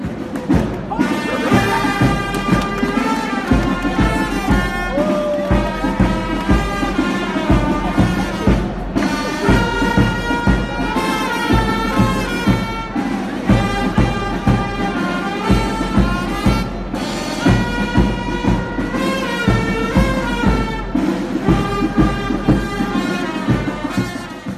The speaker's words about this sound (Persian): این آهنگی که الان شنیدید مربوط به دقیقا روز استقبال از بچه های المپیاد نجوم بوده